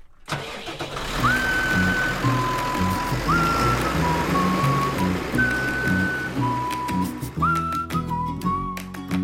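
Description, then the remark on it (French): A tractor with about 350 kilos of seed loaded in its seed drill, about to sow roughly 2.5 hectares, starts up and settles into a loud, steady rumble, with intermittent high electronic tones beeping above it; no one speaks. “Alors là, je vois que tu as en fait un joystick pour euh, manipuler le tracteur.”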